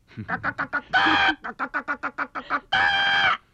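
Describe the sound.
A voice imitates a frightened hen as part of a game of making animal noises, rapid bursts of clucking broken by two longer, loud squawks, clear with no other talking.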